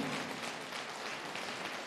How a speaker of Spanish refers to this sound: Vamos a dar un aplauso de verdad, quiero que participe. Vamos a hacer ruido un poquito.